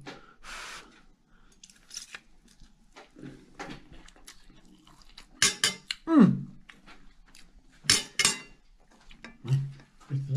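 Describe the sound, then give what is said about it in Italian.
A fork scrapes and clinks against a plate a few times, with sharp metallic taps and short scratches, followed by soft chewing and a brief low hum, as De Cecco barbina angel-hair pasta (capelli d'angelo No. 209) is tasted. “Ecco qua l'assaggio della barbina De Cecco con i suoi capelli d'angelo.”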